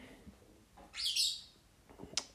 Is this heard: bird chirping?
yes